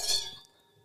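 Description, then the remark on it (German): Glasses of Crémant sparkling wine clink together once in a toast, bright, and the thin ringing tone lingers and fades over the following moment with no one talking. “da müssen wir gleich anstoßen, weil ich habe ja da was Gutes mitgebracht.”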